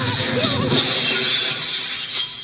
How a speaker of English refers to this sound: Then, Ray noticed that the slime in his jar was beginning to quiver and hiss. The more the judge shouted, the more the slime pulsed and swelled. When the jar exploded, everyone dived to safety.